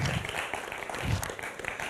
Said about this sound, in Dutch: Applaus voor dit fantastische team die het weer gezorgd heeft dat we dit hebben.